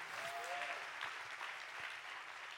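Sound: audience clapping hands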